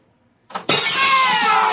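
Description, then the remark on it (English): An empty glass bottle is thrown through a building's window: a sudden, loud crash of shattering glass that bursts in after a brief quiet and keeps ringing and tinkling to the end. “Two to one on a buck, I can heave one right through that window.”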